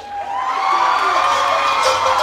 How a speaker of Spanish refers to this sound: Y claro, recibe la ovación. Recibe la ovación.